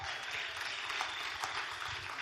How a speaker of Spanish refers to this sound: Véngale, hermano. ¡Un aplauso!